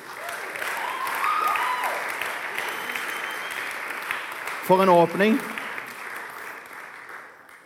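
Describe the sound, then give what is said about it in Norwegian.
A crowd at a Thursday Touchpoint Kristiansand church meeting applauds the worship band steadily, a dense wash of clapping that fills the whole stretch, while a man speaks briefly over it near the middle. “Yes, Dere kan vi ikke gi lovsangsteamet en solid applaus?”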